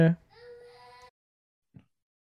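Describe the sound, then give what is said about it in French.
The speaker's young son cries in the background, one drawn-out, steady wail lasting about a second, fairly quiet, followed by a brief low sound. “Et là, j'ai mon gars qui est, qui est en pleurs.”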